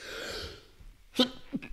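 A sharp sneeze bursts out after a drawn-in breath, followed by a second, smaller explosive exhale a moment later.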